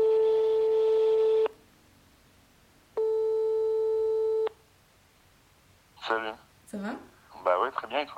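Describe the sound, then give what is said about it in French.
Two long, steady telephone call ringing tones sound in turn, each about a second and a half with a pause between, loud; then people begin talking briefly. “Désolé, en fait, j'ai loupé ton appel au début parce que je m'étais lancé dans une pâte à crêpes et j'avais pas vu le, temps passer”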